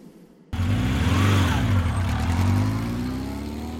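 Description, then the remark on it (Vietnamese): A motorbike engine is started by a man after a brief quiet moment, then revs with a strong, steady low rumble that rises and settles, loud throughout. “Anh rể nổ máy, mẹ đi khập khiễng phía sau.”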